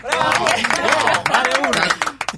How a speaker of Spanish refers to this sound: están aplaudiendo porque no pueden con una